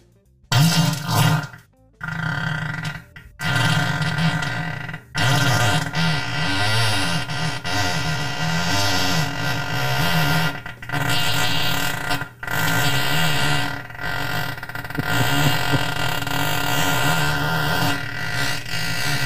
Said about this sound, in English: farting into his phone for 30 seconds or so.